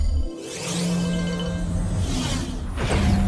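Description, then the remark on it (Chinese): A time-machine whoosh effect as the time machine travels through time and space: a broad, sustained rushing swirl with rising and falling sweeps and a shimmering tone, ending in a brighter swish. No one speaks. “斗转星移，时空穿梭，嗖！”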